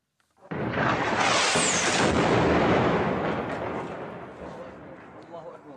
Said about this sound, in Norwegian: Vi hører her lyden av det som skal være bombardementet av byen Homs. Flere hundre skal være drept i Syria i natt, ifølge opposisjonelle.